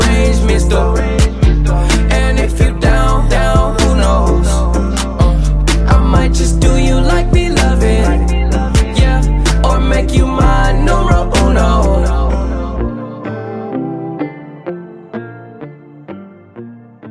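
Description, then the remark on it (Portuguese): A song plays with a thick, steady beat, heavy bass and regular drum hits, then the bass and drums cut out near the end, leaving a few sparse notes that ring and fade. “Vocês acabaram de ouvir a música que eu falei lá”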